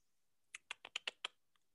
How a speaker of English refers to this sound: Uh, I heard typing. Yep. I heard typing.